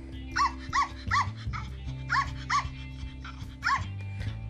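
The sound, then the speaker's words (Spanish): A small female dog, wagging her tail, yaps at a cat in a quick series of high, sharp barks, about eight in bursts, over a steady low hum in the background. “Una pequeña perrita moviendo su cola y ladrando con amor a su nueva hermana gatuna.”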